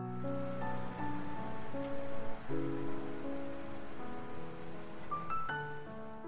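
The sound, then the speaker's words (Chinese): A grasshopper chirps on a summer night in a steady, unbroken high-pitched buzzing trill that runs the whole time, layered over soft, sustained musical notes that shift slowly. No one speaks. “声音中还带有一点点沙沙质感的蚱蜢叔叔，”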